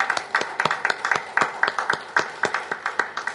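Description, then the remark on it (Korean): A church audience applauds in thanks to the director who leads their prayer, with a steady, fairly even rhythm of overlapping claps, moderately loud and continuous throughout, with no voices standing out. “감사합니다라고 감사의 박수 보내드립니다.”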